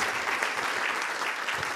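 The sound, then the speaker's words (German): An audience claps steadily in applause for a board made for the sermon, a dense wash of many hands at a constant, fairly loud level with no voices breaking through. “Ich würde ihr gerne mal einen Applaus geben für die Tafel.”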